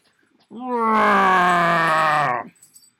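A cat lets out one long, loud yowl lasting about two seconds, a drawn-out moaning cry that slowly drops in pitch before cutting off, with no talking over it.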